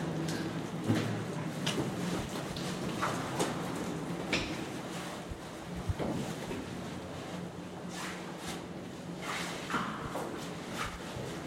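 A deep, steady rumble of an underground river flowing fills the space without pause, a constant rushing hiss over a low drone, with no voices.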